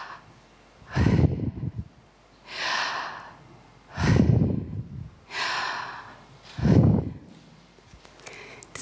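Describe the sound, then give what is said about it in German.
Slow, deliberate breaths, about three full cycles: airy, hissing inhales alternating with heavier, rushing exhales in a steady rhythm, with no talking, showing that saying the name Yahweh is like breathing. “Und der jüdische Rabbi hat gesagt, wenn wir versuchen, den heiligen Namen Gottes Jahwe auszusprechen, dann ist es wie Atmen.”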